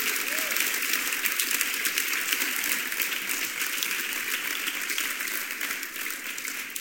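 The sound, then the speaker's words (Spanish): A standing church audience applauds Jesus steadily, a dense wash of many hands clapping at an even, sustained level for several seconds without breaking off. “Ponte de pie, dale un aplauso a Jesús.”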